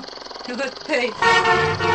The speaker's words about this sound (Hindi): बाप रे बाप कतेक जोर से हर्न बजल गई गुजारिया जेना कान के जाली फाड़ देलक हाँ अहिना से एठम के अवस्था हॉर्न स्पीड आ ओवरटेकिंग ये तो हाईवे के नियति बन गए